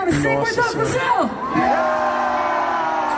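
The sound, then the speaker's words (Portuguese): A large concert crowd in Brazil roars, with many voices whooping and yelling at once, sustained and loud throughout, dense with overlapping shouts. “Se os caras mandavam a gente tomar no cu, a gente gritava, cara.”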